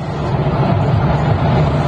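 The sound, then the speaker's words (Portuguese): A bus speeds along at about 140 km per hour with a loud, steady low rumble of engine and road noise that stays constant throughout, with no voices over it. “140 km por hora. Vou acompanhar. O motorista gravou atrás.”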